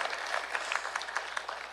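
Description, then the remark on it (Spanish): An audience in Dover applauds steadily, many hands clapping at once in a dense, crackling wash with a few sharper claps poking through, fairly quiet overall and without any voices. “¿Habrá alguien en Morristown que aplaude o aquí en Dover también?”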